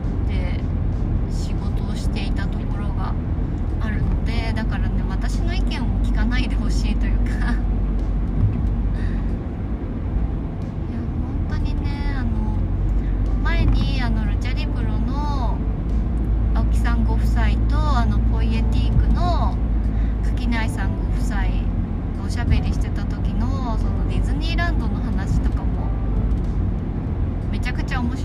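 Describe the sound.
A steady low rumble of engine and road noise fills a moving car's interior throughout, on a drive to buy supplies in blazing heat, with a person talking continuously over the constant drone.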